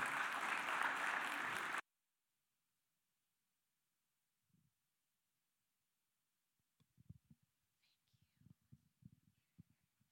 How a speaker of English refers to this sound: So give her a big round of applause for coming and sharing with us today.